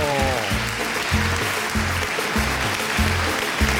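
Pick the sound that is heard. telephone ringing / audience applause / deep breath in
audience applause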